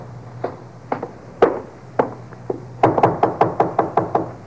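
A man knocks on a door: a few scattered, hollow raps at first, then a fast, insistent run of about eight firm knocks, with a low hum underneath and no voices.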